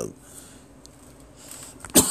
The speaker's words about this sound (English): You know, I got a bunch of water below me and I'm here coughing, mouth dry as hell. Unbelievable. yeah, mouth dry as hell. I'm coughing. I got like 30 bottles of water below me.